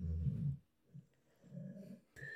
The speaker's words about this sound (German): Ah, ich muss jetzt einwerfen, das Wildschwein liegt bei uns unterm Tisch. Nein, also diese Background-Geräusche müssen wir entschuldigen, das sind unsere Hunde. Entschuldigung.